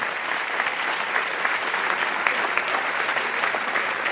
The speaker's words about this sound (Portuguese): Amém, amado? Vamos aplaudir o Senhor aí? Que Ele é uma escola de vida.